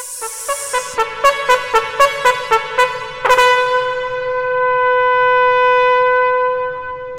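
A horn sound effect: about nine short, evenly spaced toots in quick rhythm, then one long sustained blast holding for several seconds. Loud, with no talking.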